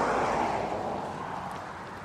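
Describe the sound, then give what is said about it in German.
Wind blows head-on into two outdoor microphones fitted with furry windshields during a walk up the Kahler Asten, a loud continuous roar with a heavy low rumble that eases slightly over two seconds. No one speaks. “Also es ist sehr idyllisch hier, natürlich auch windig. Jetzt gerade. Der Wind bläst von vorne.”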